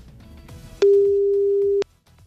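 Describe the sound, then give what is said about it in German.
A single steady ringback tone sounds for about one second, a clear mid-pitched beep on the line heard while a call connects, with faint background noise before and after. “Das reicht mir und äh, ich drücke auf Call und irgendwo klingelt jetzt ein Telefon, ein Handy ist es, glaube ich, und eine unbekannte Nummer.”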